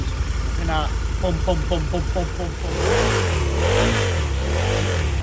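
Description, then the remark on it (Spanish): A Harley motorcycle engine idles with a lumpy, pulsing beat, then revs loudly, its pitch swelling up and falling back down in a couple of throttle blips. “Al candidato de Ciudadanos lo hemos visto en su moto, una Harley.”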